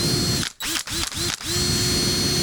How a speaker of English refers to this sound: That's a nice drill, though, isn't it?